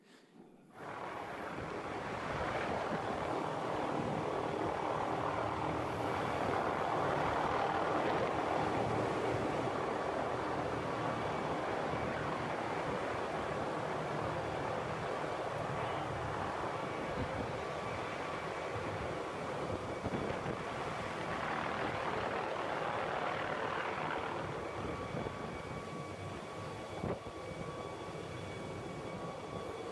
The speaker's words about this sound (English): one of them took a video of me going up on the helicopter ride, so I have that as well that I want to share with you guys. So if you could play the helicopter video, it's a little crazy, but you'll get the picture.